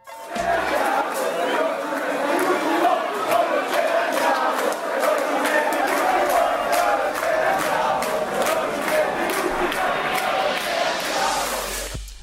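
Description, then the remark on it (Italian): A short radio jingle made of a loud, dense crowd: many voices shouting and chattering together at a steady level for about twelve seconds before cutting off abruptly. “Bene, e su questo elegantissimo e sobrio jingle ci salutiamo.”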